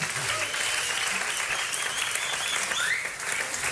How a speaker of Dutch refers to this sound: Mag ik even een applausje